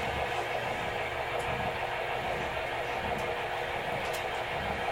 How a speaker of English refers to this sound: that sounds like a V8 engine. Yeah. Sounds like a V8 out of me.